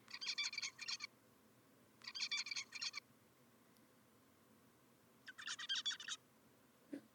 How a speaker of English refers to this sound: One hundred and twenty. Wow, that's the same bird. Yes, that is the same. The last three cl- clips are the baby bird at 50 days, 70 days, and 120 days old. That is so cool. So you can see he's learning.